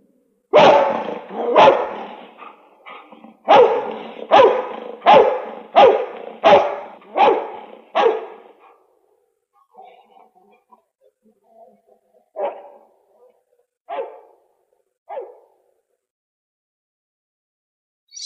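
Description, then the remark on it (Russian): A dog barks loudly in a rapid run of about nine sharp barks, falls quiet with some faint rustling, then gives three more spaced-out barks. “Собаку возьми.”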